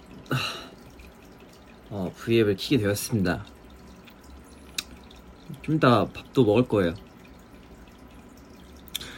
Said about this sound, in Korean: 옆에서 물소리 난다고요? 맞아요. 저번에 보여드렸던 어항 물소리예요, 지금. 근데 한번 또 닦아줘야 돼요. 맨날 닦아주거든요.